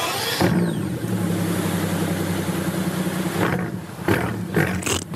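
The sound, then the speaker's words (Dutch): A powerful AMG V12 engine roars, holding a deep steady growl before several sharp revs blip upward near the end, loud and alone with no voices. “Dit is de V12.”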